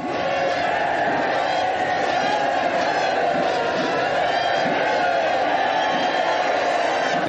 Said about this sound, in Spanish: Los marineros de la flota gritan.